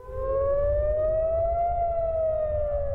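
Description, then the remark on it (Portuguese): An air raid warning siren in Israel, set off by the defense system during a rocket attack, wails steadily, its tone slowly rising and falling as it carries loud and sustained over a low rumbling background, with no voices. “Quando há ataque com foguetes, o sistema de defesa de Israel é acionado e uma sirene toca.”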